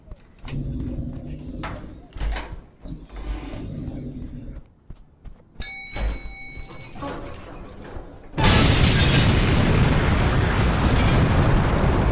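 A sudden, loud explosion at the corner of Salta and Oroño erupts after a stretch of low rumbling and scattered clatter, then a dense roaring wash of noise fills the remaining seconds without fading.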